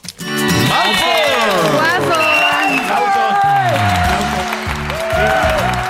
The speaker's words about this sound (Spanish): Gracias por esos hermosos aplausos hoy.